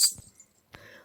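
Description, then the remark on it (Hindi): Ghungroo ankle bells jingle loudly in a quick, bright metallic shimmer at the start, followed by a softer second jingle a moment later. “और तभी बाहर से कुछ आवाजें आने लगी छन छन छन घुंगरू की आवाज़ बड़ी ही तेज आने लगी”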